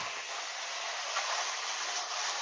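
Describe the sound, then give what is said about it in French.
A vacuum cleaner runs with a steady, loud, hissing roar that stays even and unbroken throughout, with no voices over it. “C'est pas changer de pièce Attendons que le seigneur aspirateur soit parti.”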